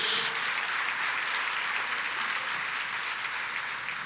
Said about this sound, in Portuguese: Se você recebe essa palavra, celebre com a salva de palmas ao Senhor. Glória a Deus, mais alto. Glória a Deus.